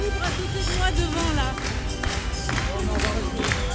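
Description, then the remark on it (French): Steady, dense applause and crowd noise from a crowd with flags fill the studio, with cheering voices rising over the clapping throughout. “Tous ces applaudissements, c'est pour nous, Mais là, bah ben oui, on est là.”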